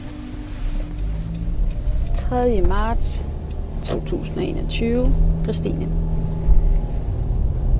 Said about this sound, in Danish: Så sidder jeg i bilen på vej mod Klostrup.